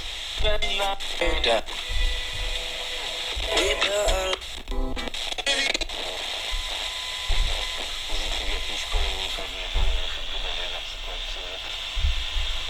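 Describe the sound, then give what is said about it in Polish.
A radio receiver plays a broadcast through steady hiss and buzzing interference from a computer, with bursts of harmonic whine and crackle cutting in; faint voices come and go beneath the noise. “zakłócenia z komputera nam też w międzyczasie się pojawiają”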